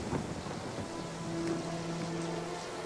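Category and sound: nature, rain starting to fall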